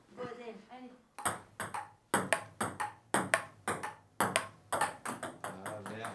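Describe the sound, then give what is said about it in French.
A table tennis ball clicks back and forth in a quick, steady rally during a game, a dozen or so sharp bright taps at an even rhythm, following a moment of soft talking at the start; the point ends on a net, making the score 15 to 12. “Encore une fois, un filet, cette fois-ci non sonore, euh, et ce qui fait donc maintenant 15 points.”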